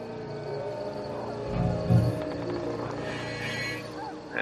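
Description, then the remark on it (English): Wolves howl, long wavering tonal cries layered over one another, with a low rumbling swell partway through and a steady outdoor background. “Do you have what, son? Wolves. Is that not bad? I hear wolves.”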